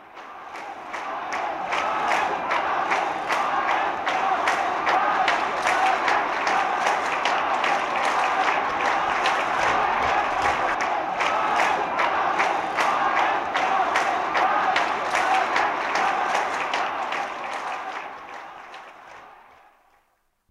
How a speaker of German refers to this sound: wonach 23 israelische Flugzeuge abgeschossen worden seien, kannte der Jubel in den Kairoer Straßen keine Grenzen mehr